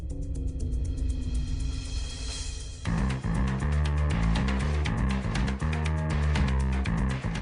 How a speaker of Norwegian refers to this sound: Uh, la oss høre på en liten jingle for det.